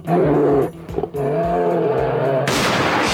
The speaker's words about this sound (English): Do you want to hear a bear get shot on live radio? Sure, you do.